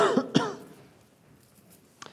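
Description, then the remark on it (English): A preacher getting over a cold coughs and clears their throat during a church sermon, two quick harsh bursts at the start, followed by near silence and a faint short sound at the end. “Try not to cough too much this morning.”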